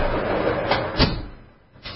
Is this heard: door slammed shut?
yes